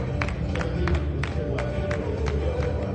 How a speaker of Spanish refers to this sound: Vamos a dar una aplauso al Señor, hermano.